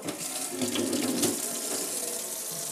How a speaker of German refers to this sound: Meine Finger mal kurz abgewaschen, weil sie klebrig sind.